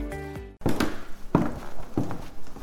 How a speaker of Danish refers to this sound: Mine fodtrin giver genlyd, når jeg hvileløst bevæger mig rundt i de tomme lokaler, jeg befinder mig i.